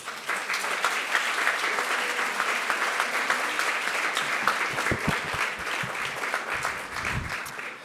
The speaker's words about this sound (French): Maintenant, euh, un écrivain dont je suis sûr vous connaissez le travail, Edouard Louis, vous pouvez l'applaudir s'il vous plaît.